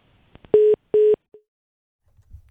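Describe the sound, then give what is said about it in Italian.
Two steady electronic telephone tones on a phone line during a radio call-in, each lasting about a fifth of a second with a short gap between, followed by a brief faint blip and a couple of clicks; no one speaks. “Eh, qualche problema con il telefono.”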